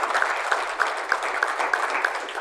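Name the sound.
audience round of applause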